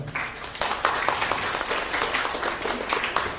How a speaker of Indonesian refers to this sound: Uh, beri tepuk tangan untuk eh, beliau.